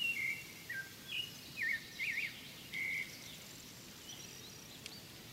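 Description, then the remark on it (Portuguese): A sabiá thrush sings a short run of clear, flute-like whistled phrases over about three seconds in an araucaria forest, then falls silent against a soft, steady woodland hiss. “O canto vibrante do sabiá faz lembrar o som de uma flauta.”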